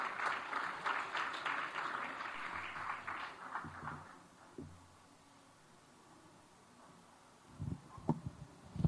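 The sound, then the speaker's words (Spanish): An audience applauds the speaker introduced to give a presentation on an autistic perspective for educational contexts, a dense patter of clapping for about four seconds that fades into a quiet murmur, followed by a few scattered thumps and shuffles. “Un aplauso, por favor, para nuestra expositora que, ya viene.”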